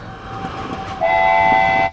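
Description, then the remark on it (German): A coal-fired steam train arrives with a low, steady rolling rumble, then a loud sustained whistle sounds from about the midpoint, holding steady before cutting off abruptly. “Und dann würde ich hier mal den äh, noch mit Kohle fahrenden betriebenen Zug würde ich hier mal ein, einreiten lassen.”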